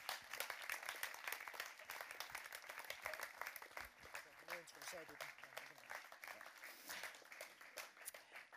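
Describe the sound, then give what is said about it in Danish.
An audience applauds steadily for several seconds as two speakers come up on stage, a dense crackle of many hands clapping together, with some murmuring voices mixed in beneath the clapping. “Har I ikke lyst til at komme op og give dem lige en kæmpe hånd, imens de kommer op?”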